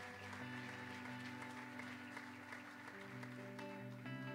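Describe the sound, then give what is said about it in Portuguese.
A church audience claps steadily throughout to give glory to God, a dense, continuous wash of many hands over sustained keyboard or organ chords. The applause stays fairly loud and even, with no one speaking. “Essa era a hora que você deveria dar glória a Deus e aplaudir ao Senhor e adorar Ele.”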